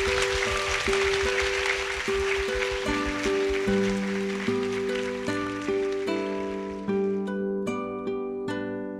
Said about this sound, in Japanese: はい。はい。というわけで大きな拍手で、えー、お送りお送りしたいと思います。鈴木プロデューサーと種田洋平さんでした。ありがとうございました。